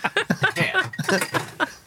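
Glasses clink a few times as someone rummages through a cupboard, the light chinks mixed in with a steady stream of people talking and laughing.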